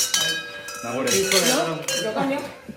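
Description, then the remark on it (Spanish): Several glasses clink together in a toast at Bodegas El Otero, an old wine-cellar quarter, their bright ringing tones overlapping and lingering, while voices murmur underneath. “Salud, amigos.”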